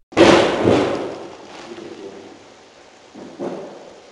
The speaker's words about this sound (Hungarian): két próbálkozással berúgja az iroda ajtót